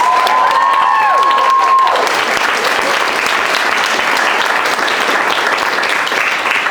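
A large audience bursts into loud, sustained applause for five guests, with a sharp whistle and cheers rising over the clapping in the first couple of seconds before the steady roar of hands carries on.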